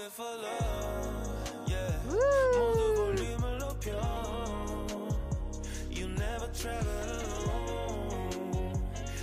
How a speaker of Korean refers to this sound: 자, 어떤 로고송인지 하시는 분들이 있으실 것 같아서 한번 짧게 들어보도록 하겠습니다. 듣겠습니다.